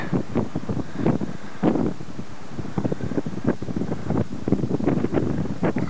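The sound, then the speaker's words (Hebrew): Very cold, gusty wind at Arches buffets the microphone in uneven rushing bursts, a loud, rumbling roar that rises and falls throughout, on a morning after a night of rain and fog, with no voices. “בארצ'ס, רוח מאוד קרה, מזג אוויר נפלא אחרי שהיה לנו גשם וערפל והכל בלילה, ובבוקר פתאום נסע יפה.”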